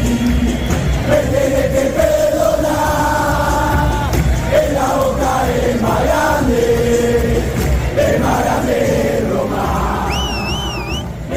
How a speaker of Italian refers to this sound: L'avete riconosciuto? È il coro che i tifosi del Boca Juniors hanno cantato lo scorso 25 giugno durante una partita show tra gli idoli della nazionale argentina, guidata da Lionel Messi